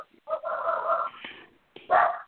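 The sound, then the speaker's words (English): A female pet dog named Princess whines in a long, drawn-out wavering cry, pauses briefly, then lets out a shorter, louder whine, with no talking. “My dog wants to get kissed. She's pissed.”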